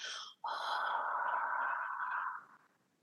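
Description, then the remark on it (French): A brief inhale, then a long, steady ujjayi yoga exhale, a sigh-like soft hiss made by closing the back of the throat, holding for about two seconds before fading out. No words are spoken. “Je ne sais pas si tout le monde a pu entendre, mais en fait, oui, c'est un, un espèce de soupir euh, à l'expiration avec Ujjayi. Donc, on va euh, fermer la, la Hein, le fond de gorge pour avoir euh, euh, ce souffle-là.”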